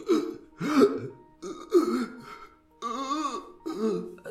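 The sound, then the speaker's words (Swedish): A voice imitates someone choking: strained, gurgling throat sounds and gasping bursts, several in a row with brief pauses, fairly loud with no words. “Som att någon typ håller på att kvävas, kvävas.”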